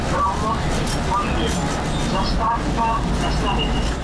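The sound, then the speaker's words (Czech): A steady, loud low rumble of a train running on rails past Teplice nad Metují toward Broumov fills the whole stretch, with faint voices murmuring over the continuous rolling noise. “Kdo se za prvotinou architekta Josipa Plečníka na našem území vydá vlakem, musí se za teplicemi nad Metují dávat pozor, aby nepřejel.”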